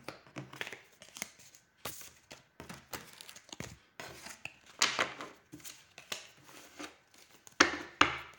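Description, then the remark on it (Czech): Cards are shuffled and laid out for a card reading about a house being built: a run of crisp papery snaps, slaps and rustles in irregular bursts, with a few sharper flicks toward the end and no talking. “Já já si poskládám karty, já vám na to ještě mrknu.”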